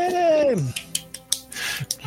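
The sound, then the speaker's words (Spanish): A descending tonal whoop gives way to a handful of sharp, scattered claps from an applause sound effect, sparse and uneven rather than a full crowd, moderately loud. “Muchísimas gracias, por favor, que son esos aplausos”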